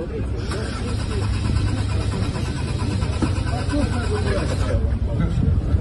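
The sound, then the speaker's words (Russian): The engine of a new Lada Aura prototype car in St Petersburg cranks over and over without catching, a steady, grinding whir that runs the whole time, with faint voices mixed in underneath. “Возможно, это все-таки производители российских машин что-то делают не так, раз их авто не заводится с первого раза.”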